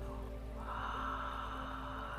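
A slow, deep breath drawn in during a guided meditation, a soft airy hiss that swells partway through and holds steady, with a faint low hum underneath and no talking.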